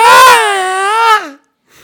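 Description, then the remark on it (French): A voice imitates the scream of a kid who gets hit in the head by basketballs: one loud, strained high-pitched cry lasting over a second, wavering then sliding downward before cutting off, followed by a faint breathy sound. “C'est le gamin qui se prend des ballons de basket dans la tête et qui crie”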